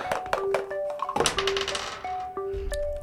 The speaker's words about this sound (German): Bitte einmal nochmal würfeln.